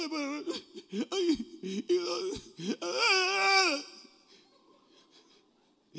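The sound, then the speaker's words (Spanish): A man's voice fakes exaggerated sobbing and wailing, imitating Abraham crying over a ram, rising into a long high-pitched cry before trailing off into quiet breathy sniffles, fairly loud. “Ustedes vieron a Abraham llorando por, por un carnero.”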